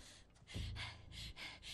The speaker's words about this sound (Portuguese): Eles estão ofegantes, mas o corpo não tá ofegante.